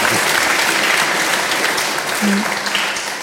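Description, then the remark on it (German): Steady, dense applause from an audience, a continuous crackle of many hands clapping at even loudness for a few seconds, with a faint voice briefly audible underneath. “jetzt nochmal kurz klatschen.”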